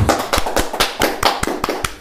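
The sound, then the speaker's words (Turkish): Quick, sharp hand claps in a steady rhythm, about ten over two seconds, fairly loud, like a brief round of applause for İngiliz Kemal from one or two people with no voices. “O zaman İngiliz Kemal'e bir alkış buradan gelmez mi?”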